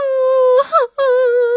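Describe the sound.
A voice imitates a little owl crying, the crying growing louder: two long, steady, mid-pitched wailing hoots, loud and sustained, broken by a brief catch in the middle.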